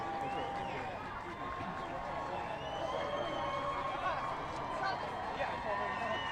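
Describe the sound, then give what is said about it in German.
A large crowd cheers and chatters continuously at a red carpet pre-show as Mandy Patinkin arrives, a dense, steady wash of many overlapping voices with scattered shouts rising above it throughout. “Und Jubel bei der Pre-Show.”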